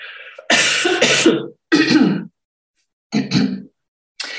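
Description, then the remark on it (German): Several harsh, loud coughs burst out in uneven clusters, with short silent gaps between the fits, then a final brief cough at the end. “Achtung, Husten”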